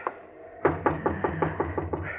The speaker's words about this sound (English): Well, please knock again, Harve. I'm cold.